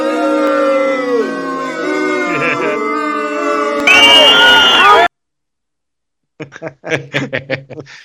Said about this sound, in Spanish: Hoy tenemos, eso este, tenemos pifia producida y hecha por nosotros, bacán. Sí, tenemos pifia en vivo, eso es tan buena.